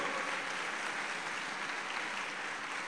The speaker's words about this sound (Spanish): Si le dan un aplauso, déselo al Señor.